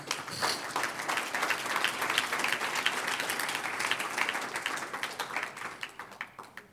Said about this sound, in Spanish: ¿Cuántos dicen aleluya? Un aplauso al Señor.